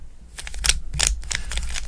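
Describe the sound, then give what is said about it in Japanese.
A Chinese-made speed cube (Rubik's cube) sold as recommended for beginners, being hand-scrambled: a quick irregular series of sharp plastic clicks and rattles, fairly loud, with no talking. “こういうなんかルービックキューブは手混ぜだしさ この手混ぜもね楽しいじゃない”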